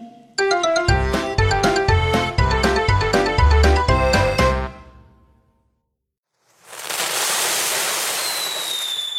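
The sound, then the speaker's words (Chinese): Fireworks set off by someone not far away go off in a fast, loud string of sharp crackling bangs for several seconds, then a brief silence before a steady rushing hiss with a thin high whistle. “恰好不远处有人放烟火，借着亮光，我看见门上一左一右贴着两张旧纸”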